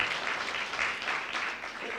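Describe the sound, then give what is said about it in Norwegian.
An audience applauds steadily, a dense crackle of many hands clapping at a fairly even level for the whole two seconds, with no voices standing out. “Nå klapper vi.”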